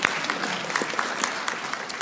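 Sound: audience clapping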